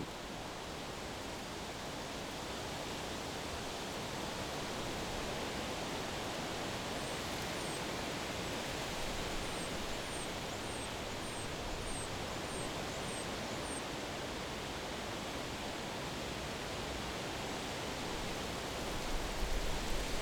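White poplar leaves rustle in the wind with a steady, muted, hiss-like sound that never lets up, fairly soft, with no voices; the white poplar stands right next to a black poplar.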